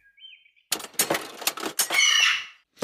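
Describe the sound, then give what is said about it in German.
A small bird takes off from a machine: a soft chirp, then a quick burst of rapid, papery wingbeats lasting about two seconds with a brief twittering call mixed in, no voices. “Äh, ein Vogel ist äh, auf dem Automaten äh, losgeflogen.”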